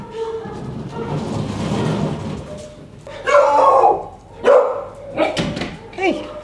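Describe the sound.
A dog at a kennel lets out several loud, sharp barks in quick, uneven succession over a busy background, with a person's voice telling it to get off and sit mixed into the commotion.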